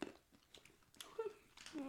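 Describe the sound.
Crisp crunching from someone chewing crunchy Laver Almond seaweed almond snacks, with irregular bites and sharp crackles, mixed with brief murmured voice sounds between the chews.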